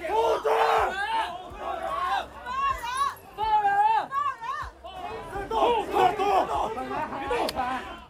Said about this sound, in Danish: Et andet sted i byen foregår den samme protest, men med et helt andet lydniveau. Demonstranter har råbt om afskaffelse af corona-lockdown.